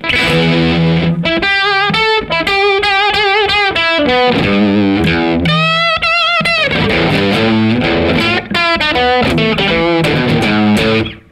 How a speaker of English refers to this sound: I go into a Ariza Fratsitz, which just gives me aggressive overdrive. I rarely use that, but it's nice to have.